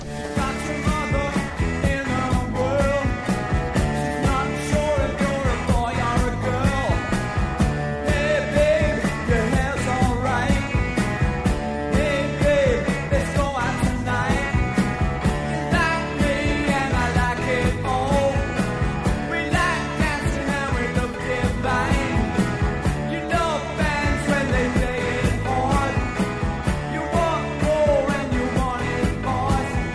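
A rock song plays loudly and continuously for the whole stretch, with a steady driving drum beat under a dense full-band mix of guitars and vocals-like melody; no one talks over it.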